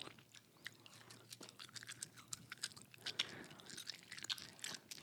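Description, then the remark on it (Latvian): Someone chewing soup with shrimp in it, with moist, crunchy bites, an irregular run of small clicks and smacks that stays fairly quiet throughout, with no talking. “Cilvēki ēda, cilvēki ir laimīgi.”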